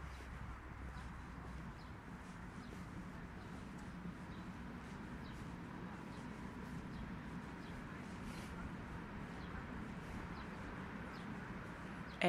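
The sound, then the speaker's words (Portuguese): An S-Bahn commuter train on the ring line around Berlin rumbles along steadily, a constant low roar with a broad rushing hiss and faint metallic ticks, holding the same moderate loudness throughout with no voices. “esse aqui é o som do, do S-Bahn, desse trem que é o anel viário em volta da cidade.”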